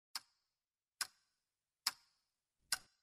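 A clock ticking, four crisp, bright ticks in a steady rhythm just under a second apart, each short and sharp with silence between and no voices.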